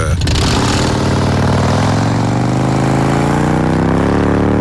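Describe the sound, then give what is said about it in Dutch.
A Harley motorcycle engine revs hard, its deep rumbling pitch climbing steadily as the bike pulls away, loud and continuous with no talking. “het is, het, is, het is niet mijn favoriete motor, de Harley, maar hij heeft een mooi geluid.”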